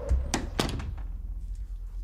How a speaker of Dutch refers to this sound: En wanneer je de voordeur opent, valt je blik direct op de enveloppen op de mat.